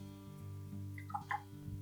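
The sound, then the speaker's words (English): A tiny splash of a few milliliters of water poured into a cocktail glass after bitters, heard as a few quick, faint trickling drips over a steady low background hum, with no talking. “I'm just going to add a tiny little splash of water.”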